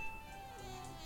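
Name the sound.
alarm clock ringing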